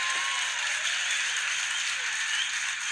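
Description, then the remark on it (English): A CBS studio audience applauds steadily, a dense, even wash of many hands clapping at once that holds at a constant, fairly loud level throughout, with no voices over it. “Okay, you applaud, but I think it is wrong for CBS to make me bleep that.”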